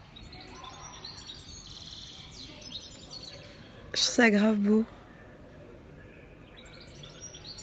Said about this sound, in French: Je sais pas si vous entendez, mais il y a les oiseaux qui chantent.